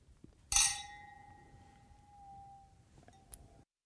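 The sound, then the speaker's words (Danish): Two glasses of port wine touch in a toast with one bright clink whose clear ringing tone lingers and slowly fades over a few seconds, followed by a faint second tap against a quiet background. “Skål i portvin.”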